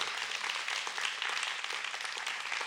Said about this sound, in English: Give God a big hand clap.